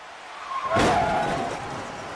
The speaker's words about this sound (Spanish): Así que suena el choque de autos y Mick Foley aparece